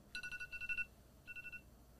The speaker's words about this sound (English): That's my TikTok alarm to post a TikTok going off right there. That's how you know. Gotta post.